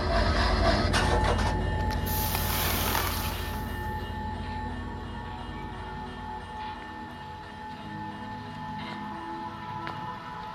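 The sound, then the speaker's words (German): A toy train in a toy shop that is closing: its rumbling clatter is loud at first, then winds down after a few seconds into a quieter, steady mechanical hum with a faint whine as it suddenly stops. “Die Lichter gingen aus, die Seifenblasen hörten auf und das Letzte, was ich sah, bevor ich ging, war der Zug, der plötzlich anhielt.”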